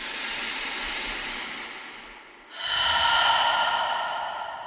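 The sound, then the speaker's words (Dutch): A person demonstrates deep breathing as an exercise: two long, deep breaths, a slow airy inhale that tapers off, a brief pause, then a stronger, rushing exhale. No talking. “Ademhaling is heel belangrijk om orgasisten te worden, om je libido te, te activeren. Ademen, diep ademen.”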